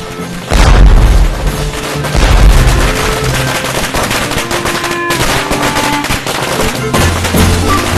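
Strings of fireworks launched up into the sky burst and crackle in rapid, overlapping volleys, with deep booms opening the sequence and a dense, steady rattle of loud pops continuing throughout, no voices heard.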